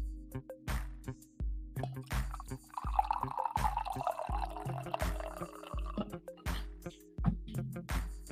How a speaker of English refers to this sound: I'm going to pour more coffee while you guys look at this box plot.